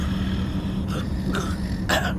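A sleeping woman snores: three short, rough snoring snorts come in an uneven rhythm over a steady low rumble, with the last one a little louder. No one speaks.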